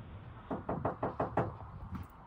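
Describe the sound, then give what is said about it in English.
A rapid series of heavy knocks pounds on the door of a family's house, about six hard blows in quick succession followed by one more after a short pause, loud with no talking. “beating on my door like this i will call the police you need to leave don't you ever be on my goddamn door like that.”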